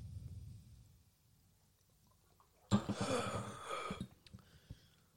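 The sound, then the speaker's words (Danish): After a quiet stretch, a person taking a vodka shot draws a sudden harsh, breathy inhale that rasps for about a second, followed by a few smaller sputtering breaths, as if nearly choking. “Der var lige ved at kløjs i indåndingen der.”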